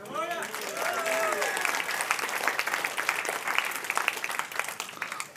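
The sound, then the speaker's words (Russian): An audience bursts into sustained applause during a sermon, after the preacher gives great glory to the Saviour for saving them from eternal fire. Dense clapping fills the room, with a few voices calling out near the start before the ovation carries on steadily. “Да, так вот, Он спасает нас от этого преисподнего ада, от вечного огня, за что Ему великая слава, и все разродились овациями.”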